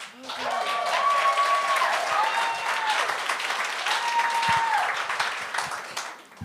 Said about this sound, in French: applaudissez jusqu'à temps qu'elle commence, s'il vous plaît.